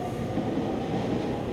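A train rumbles steadily at a railway station, a continuous low, dense roar with a faint rattling texture and no pauses or speech over its short span.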